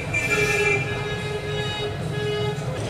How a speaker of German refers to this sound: Ja, ihr könnt jetzt mal lustig mitraten, welche Hupe ist welches Auto